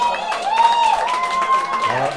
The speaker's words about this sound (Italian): L'applauso non è per noi, ovviamente. Per noi. L'applauso, però vabbè.